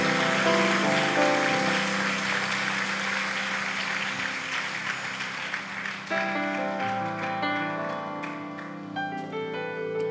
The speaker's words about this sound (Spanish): Y todos los que lo reciben, démosle una ofrenda de palmas fuerte al Señor. No, oh, más fuerte para que sepas nuestro Dios que es glorificado.